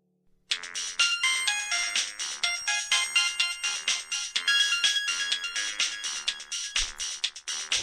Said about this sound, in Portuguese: telefone tocou.